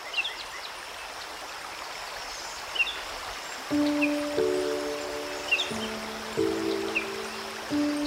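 A steady wash of flowing water at the bank of the Graça river runs throughout, with a few faint bird chirps above it; partway in, soft sustained plucked notes of a mandolin join the water.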